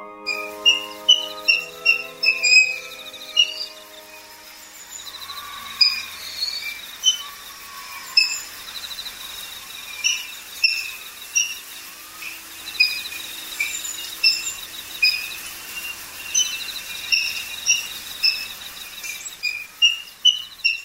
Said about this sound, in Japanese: 大きな声でリズミカルこれだけはっきりした声なのにいくら調べても図鑑にも CD にも収録されていません鳥であることは間違いなさそうですが一体何の声でしょう吉原の鳥を研究している仲間に尋ねるとクイナの冬の声である